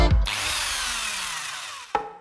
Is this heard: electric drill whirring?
yes